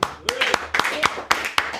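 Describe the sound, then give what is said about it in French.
Scattered applause, a handful of sharp, uneven hand claps in quick succession with a faint murmur of voices beneath, as a small audience on the Daily Express programme claps after a performance with Noé Huchard on piano. “On t'a entendu avec Noé Huchard au piano, qu'on peut applaudir.”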